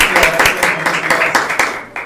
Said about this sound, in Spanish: Hoy tenemos como invitado aquí en el programa de Arriba Corazones al comandante Sergio Ramírez López, coordinador municipal de Protección Civil y Bomberos en Zapopan. Un aplauso, ¿cómo están?